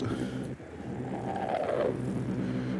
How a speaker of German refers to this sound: Und dann kommt dahinter ein Auto.